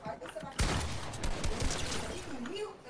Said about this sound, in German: Jetzt knallen die Headshots rein, ne?